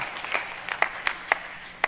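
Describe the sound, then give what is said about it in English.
Scattered audience applause: a thin, uneven patter of individual claps, roughly seven or eight sharp slaps in under two seconds, fairly quiet, with no one speaking. “$160,000 worth of applause could not cover the cost of that education.”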